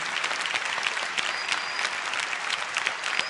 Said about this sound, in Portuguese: Pode aplaudir Jesus. Mais forte, só Jesus faz isso.